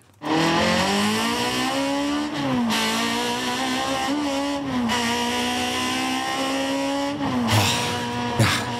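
An older BMW 2002 sports car engine drones loudly at high revs on a race circuit, pitch rising and dipping through gear changes, with brief tire squeals and a surge of acceleration near the end.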